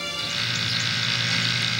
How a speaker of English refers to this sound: Electricity gets louder.